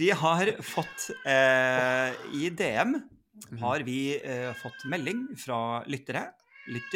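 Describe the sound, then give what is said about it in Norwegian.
A cat meows loudly and repeatedly with drawn-out, wavering cries in the background, clearly audible beneath and between people talking. “Oi, hører du katten? Ja, ja, ja, I bakgrunnen.”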